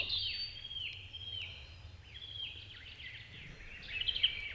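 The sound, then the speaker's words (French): A great tit sings in the foreground in a forest in April, repeating bright whistled phrases while other birds chirp faintly in the background over a low, steady outdoor hum. “Cette première ambiance a été réalisée au mois d'avril dans une forêt, et le l'oiseau qui est en premier plan est la mésange charbonnière.”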